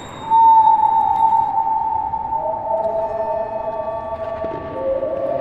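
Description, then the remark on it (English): People testing the echo inside a dome that once housed surveillance equipment, recorded with microphones placed in the recordist's ears: long, steady vocal-like tones glide and overlap, each ringing on and blending into the next in a continuous, moderately loud wash with no speech. “The dome has very peculiar acoustic properties, and what we're hearing are people experimenting with them.”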